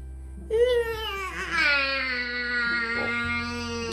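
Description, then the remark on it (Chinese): A newborn baby, in the Momotaro folk tale the healthy baby bursting out of a split peach, cries out in a long, wavering wail that rises in pitch and then holds steady with babbling catches, loud and alone over a faint low hum. “里面蹦出来一个健康宝宝。”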